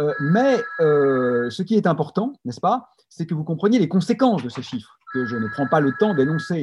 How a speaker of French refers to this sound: Excusez-moi pour le téléphone qui sonne chez moi.